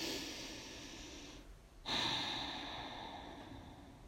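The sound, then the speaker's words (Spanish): A slow, deep breath taken during a relaxation practice: a long airy inhale, a brief pause, then a strong, breathy exhale trailing off gradually. No one speaks. “Tomamos una respiración profunda.”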